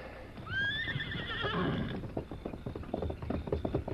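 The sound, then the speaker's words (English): A horse whinnies loudly with a long, wavering neigh, then hooves clop in a quick, uneven rhythm as the animal moves off. “That other horse is making too much noise.”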